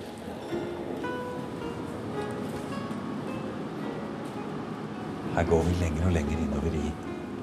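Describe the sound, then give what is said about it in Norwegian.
Steady ventilation hum and whirring fans in the medieval collection of the National Museum (Nasjonalmuseet) in Copenhagen, with faint murmuring voices in the background; near the end a deeper, louder fan drone swells for a couple of seconds. “Og vi hører hvordan eh, det er ventilasjon og vifter og Men så er vi også da inne i en samling av noen av de flotteste middelaldergjenstandene som vi har.”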